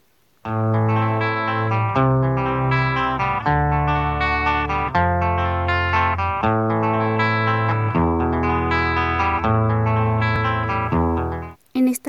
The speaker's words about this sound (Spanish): predomina de manera protagónica los sonidos del teclado y la guitarra, seguidos de el bajo y los platillos de la batería. Estos instrumentos pues son el alma de la pieza.